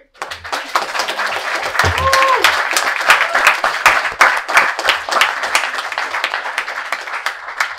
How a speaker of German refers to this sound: Für die am besten nochmal einen Applaus.